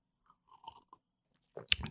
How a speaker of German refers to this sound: So, dann ein Schluck Kaffee